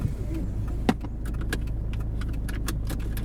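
Keys jangle in a series of quick metallic clinks over the low, steady rumble of a car cabin, with one sharper knock near the start; no one speaks.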